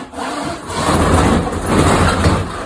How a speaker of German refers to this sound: Ach komm, ich mach einmal die Rollladen runter.